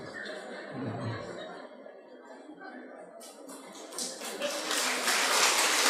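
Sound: audience clapping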